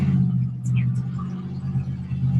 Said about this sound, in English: All right, so this is the tent let that car go by.